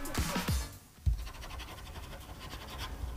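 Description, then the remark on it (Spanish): Pen scratching across paper as someone signs, a few quick strokes at the start followed by a steady, faint scratchy rustle with no voices. “No, no, y la estoy firmando, ¿eh?”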